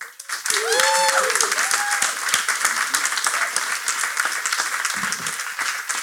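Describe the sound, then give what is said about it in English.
An audience breaks into loud, sustained applause for a guest of honor, a dense crackle of many hands clapping steadily for several seconds, with a few rising whoops and cheers early on. “Everybody, please give our guest of honor a rousing round of applause.”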